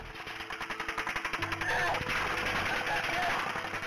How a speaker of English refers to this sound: But they too come under attack. Can you see where it's come from? The officers are pinned down by automatic gunfire.